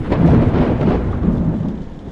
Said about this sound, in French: Dehors, pluie, vent, éclair s'en donnent à cœur joie.